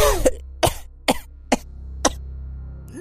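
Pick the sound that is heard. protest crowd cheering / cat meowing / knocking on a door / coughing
coughing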